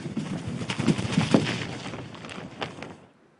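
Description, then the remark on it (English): A quick series of papery, fluttering flaps imitating a bird beating its wings, a foley sound made by shaking kitchen gloves, loud and irregular for about three seconds before stopping abruptly. “they haven't really recorded the bird it sounds a lot more realistic if you record a sheet or shaking kitchen gloves.”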